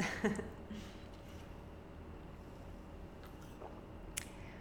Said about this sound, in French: Je vais prendre une petite gorgée d'eau.